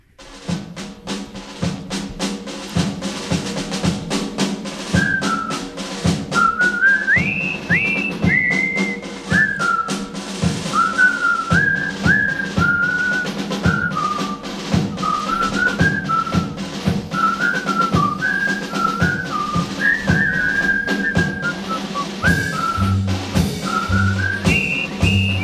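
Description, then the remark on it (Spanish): A jaunty military march from the film The Bridge on the River Kwai, whistled loud and clear, the bright melody riding over a steady thumping march beat and band accompaniment, playing continuously with no talking. “Es el puente sobre el río este, Guay.”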